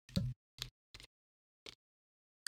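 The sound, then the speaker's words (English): A bottle cap being twisted off a sparkling drink, heard as a handful of sharp clicks spaced irregularly, with silence between them and no talking. “I'm twisting the cap off. Oh, there's the sound.”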